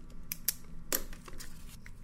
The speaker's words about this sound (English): I'm going to put two pieces of paper. One piece of paper is A. I write A. Other piece of paper, I write D.